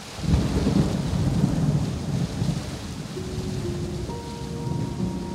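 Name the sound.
rain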